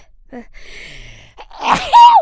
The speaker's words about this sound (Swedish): Prosit.